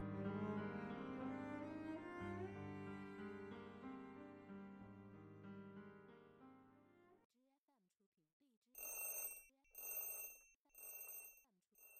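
Soft music plays and fades out, then an alarm clock rings at four in the morning in loud, bright metallic bursts, about four repeated rings with short gaps between them.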